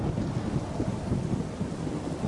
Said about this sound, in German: Psst. Habt ihr den Regen schon gehört?